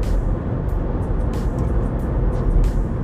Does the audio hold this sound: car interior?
yes